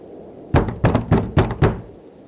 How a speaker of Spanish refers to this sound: Se despidió y después de colgar el teléfono llamaron a la puerta.